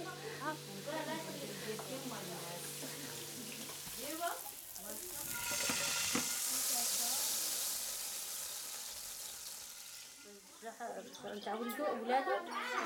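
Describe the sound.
Food sizzles and fries in pans on the stove as pans are moved about busily, with a steady, bright hiss that swells loudest in the middle, while people talk over it at the start and again near the end.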